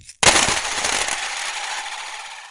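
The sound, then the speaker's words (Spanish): A handful of coins thrown by a man onto the only table in a workshop room lands with a sudden loud clatter, scattering in a burst of quick metallic clinks that fade into a faint ringing jingle. No voices are heard. “Y con eso arrojó unas monedas a la única mesa en esa habitación.”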